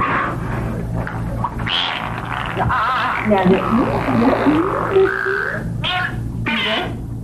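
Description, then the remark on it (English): A dolphin produces a continuous stream of warbling, squeaky, pitch-sliding vocalizations that mimic the cadence of human speech, fairly loud over a low steady hum. “Look, even when she doesn't ask the dolphin to talk, it's speaking and it's saying pretty much the same shit it does when she tells it to say words?”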